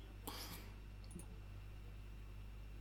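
A couple of faint, quick mouse clicks on a computer, marking a film as not seen, the first slightly longer and the second a brief tap about a second later, with no talking.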